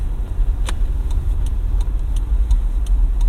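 A steady, whooshing hum from a cooling unit that has just been switched on and turned up fills the space, with a deep low rumble and light, regular ticking running through it. No one speaks.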